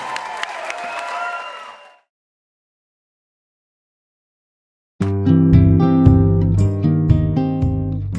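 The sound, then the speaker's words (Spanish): On the radio program Música Latina na Veia, audience applause rises briefly over the tail of some music, then fades into about three seconds of silence before loud, bass-heavy music begins. “aplauso, mi gente, se vale.”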